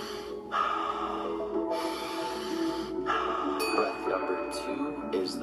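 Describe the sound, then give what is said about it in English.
Several deep, audible breaths of alkaline breathwork, each a sniffing nasal inhale followed by a long, airy exhale through the mouth, repeating in a steady rhythm with no talking. “Breath number one is alkaline breathing, in through the nose, out through the mouth.”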